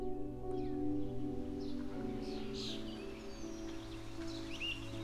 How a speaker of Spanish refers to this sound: Estás ingresando a un lugar hermoso, lleno de vegetación. Presta atención para que escuches el sonido de las aves cantando.